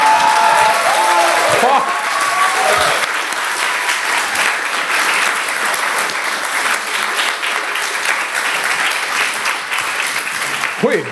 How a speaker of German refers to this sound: Ich, ich habe es geschrieben, ich krieg zweimal Applaus.